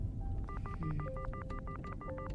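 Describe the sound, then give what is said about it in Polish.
Someone dials a phone to call their father: a quick run of keypad dialing tones, about a dozen short two-pitch beeps in steady succession, clear over a low background rumble. “Dobra, dzwonię do taty.”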